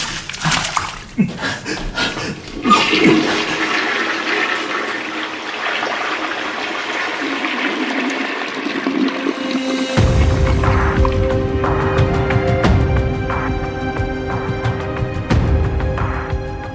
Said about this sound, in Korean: 허반장은 갈갈이 찢은 편지를 변기에 넣고 물을 내렸다. 팔랑거리며 바닥에 떨어진 종이 쪽 하나까지 주워 서둘러 변기에 물살에 밀어넣었다.